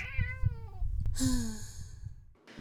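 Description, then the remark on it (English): A stray cat meows twice, a drawn-out, wavering cry followed a moment later by a second, brighter meow, over a low rumbling background. “I'm sure the stray cat will be pleased.”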